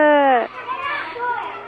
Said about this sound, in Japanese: 先生の後ろでお子さんの元気な声が聞こえてきますねはいそうなんです今ちょうど皆さんは何をされているところなんですか今ですね、はい、まさにあの明日卒園式を迎える年長組さんが、卒園式ごっこということで練習をしていたところで、えーそうなんですね。今じゃあ聞こえているのは年長さんたちのお声なんですね。